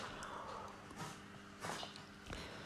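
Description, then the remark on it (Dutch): A cat sneezes several times in a row, three short, breathy bursts spaced about half a second apart, fairly quiet against a faint background hiss. “Als je denkt, dat hoor ik op de achtergrond, dat is een kat die een niesbui heeft.”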